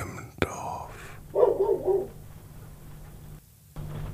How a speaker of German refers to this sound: Es regnet. Wir sind auf dem Land in einer alten Scheune. Im Hintergrund bellen die Hunde